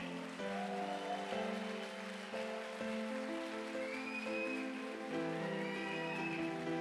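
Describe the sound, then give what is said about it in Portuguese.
A crowd applauds in a dense, steady wash of clapping that lasts throughout, mixed with sustained musical tones underneath, and no one speaks. “Se é para Jesus, dá um forte aplauso aí.”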